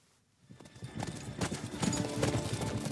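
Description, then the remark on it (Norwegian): Horse hooves clip-clop in a steady, repeating rhythm, starting after a brief quiet moment and growing louder over a few seconds. “Det handler om jenter og hester i filmen 'Til siste hinder'”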